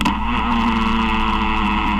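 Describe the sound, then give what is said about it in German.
A steady, loud buzzing drone with a rough, chainsaw-like rasp, a spider's amplified courtship vibration, holding constant for two seconds with no talking. “Naja, es hat auch was Kettensägeartiges.”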